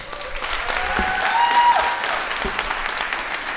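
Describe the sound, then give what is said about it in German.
An audience claps together on request in a dense burst of applause that carries on steadily throughout, fairly loud, with a faint whistle or voice rising briefly above it. “Einmal klatschen.”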